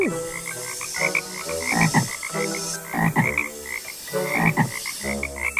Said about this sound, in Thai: ในไม่ช้าก็มีกบมากมาย จนเขาไม่สามารถเข้าไปในไร่ข้าวโพดของเขาได้ โดยที่ไม่ถูกรบกวนจากพวกกบ